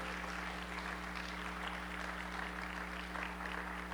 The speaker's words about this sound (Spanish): Amén. Aplaudamos al Señor, es cierto.